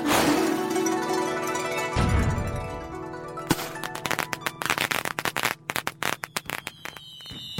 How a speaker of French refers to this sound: Et voilà comment les feux d'artifice se sont développés. Ils ont ensuite été améliorés et on en profite encore aujourd'hui.